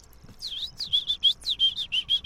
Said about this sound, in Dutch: Is zwartkop.